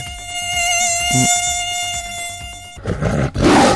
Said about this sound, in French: Écoutez le vrai son du moustique tigre, un document exclusif pour le News.